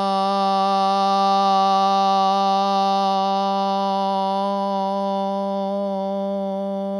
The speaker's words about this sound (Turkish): Bedenimizdeki bu gevşemenin derinleşmesi ve daha kalıcı olması için son bir kez daha derin bir nefes alacağız ve verirken a, u ve m seslerinin birleşmesi olan om sesini kullanarak nefesimizi vereceğiz. Derin bir nefes alalım.